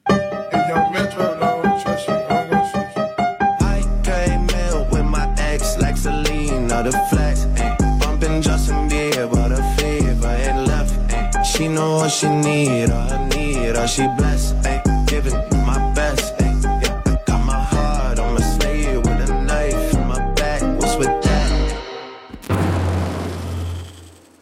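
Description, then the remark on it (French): A loud, continuous AI-generated deepfake hip-hop style song imitating rappers, with a deep, stepping bassline and punchy beat, playing steadily before briefly cutting out and shifting to a thinner section at the end. “C'est un deepfake musical, voilà, c'est généré par l'intelligence artificielle.”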